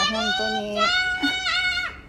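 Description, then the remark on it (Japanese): High-pitched voices of four young children chatter close by, several overlapping at once in a steady, lively stream, though no clear words come through. “すいませんね、子供の声が、あの、みん、子供がね、今ね、4人集合したので、だいぶうるさいことになると思います。”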